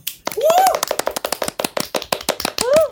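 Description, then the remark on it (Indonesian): Rapid hand clapping goes on for about three seconds in a dense, steady patter, with a couple of brief rising vocal whoops over the top. “Aku merasa aku harus tepuk tangan dulu.”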